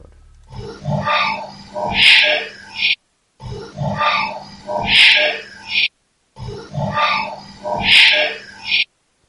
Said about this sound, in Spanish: Parece que se filtrara al final otro grito más encima de la psicofonía. Muy raro, no grites y un grito que viene después que viene a la par como si otra persona más metiéndose en la conversación.